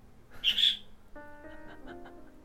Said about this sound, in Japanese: 初めはね、鳥ちゃんかわいい、鳥ちゃんはかわいいとかって言うと、声出しましたね